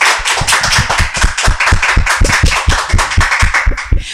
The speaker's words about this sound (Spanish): ¡Fuerte los aplausos!